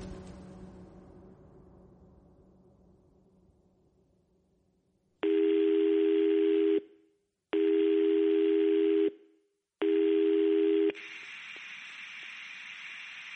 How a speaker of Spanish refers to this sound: coge el móvil y vuelve a llamar a Watchman.